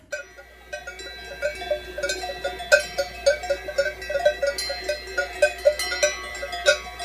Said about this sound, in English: We're high up in the Swiss Alps, and that sound that you're hearing is a herd of cows wearing cowbells. The cowbell was originally intended to make livestock easier to locate if they wandered off.